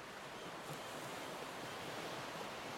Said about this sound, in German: Auf jeden Fall fährt dann das Schiff wieder an. Und der Wind schlägt ins Gesicht.